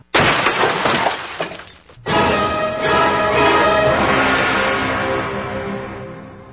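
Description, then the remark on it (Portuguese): A truck plunges into an abyss and smashes onto the rocky bottom: a loud crash with glass shattering, two heavy impacts about two seconds apart, then a long tail of tinkling, ringing debris slowly fading out. No voices. “O caminhão precipita-se no abismo e.”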